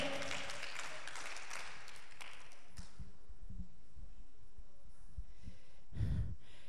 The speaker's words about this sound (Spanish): Démele un aplauso al Rey de Reyes y Señor de Señores y a su nombre.